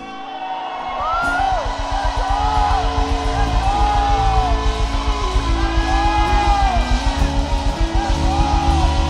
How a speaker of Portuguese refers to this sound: Graças a Deus temos liberdade espiritual na nossa igreja. Amém? Eu te convido a soltar um grito de liberdade.